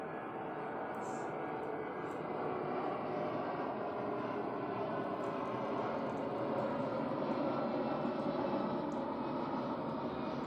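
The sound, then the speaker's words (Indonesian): A steady, broad roar of an airplane passing overhead, holding fairly constant in loudness for the whole stretch with no clear rise or fade, and no distinct voices over it. “ternyata bapak ini sebentar pesawat”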